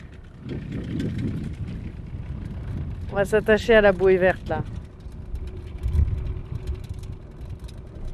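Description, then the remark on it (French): A very small boat motor hums with a steady low rumble throughout on a windy day, while a person briefly speaks over it partway through. “Ouais, mais c'est un très petit moteur ça.”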